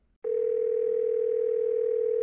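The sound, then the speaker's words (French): A steady, unbroken telephone dial tone of an outgoing call to the plus-size cycling clothing brand Wilma sounds for about two seconds at a constant pitch, clear and fairly loud, starting abruptly after a brief silence and then cutting off, with no talking. “Du coup, j'ai appelé la marque”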